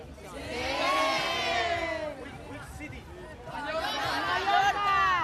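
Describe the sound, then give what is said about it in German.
A busy crowd of tourists in Berlin chatters and calls out in many languages, with some raised, cheer-like shouts rising and falling over a steady babble, loud throughout. “überall hört man Touristen, die in allen nur erdenklichen Sprachen und Lautstärken sprechen.”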